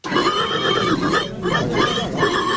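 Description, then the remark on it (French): A 28-year-old man, winner of the best pig-squeal contest at the second Saint-Cochon village festival, imitates a pig squealing: a loud, continuous, strained squeal with wavering pitch lasting a few seconds, with a brief catch in the middle before carrying on. “Au programme de cette fête de village, barbecue, défilé de confrérie locale, fanfare, mais le clou du spectacle, c'était, bien sûr, le concours du meilleur cri de cochon”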